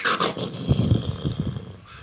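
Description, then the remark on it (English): A voice imitates rumbling thunder with a low, growly, rolling rumble lasting about two seconds, starting with a short breathy hiss and fading out gradually. “Um, of course, uh, thunder, you know, is the sound that uh, lightning makes. It sounds kind of like,”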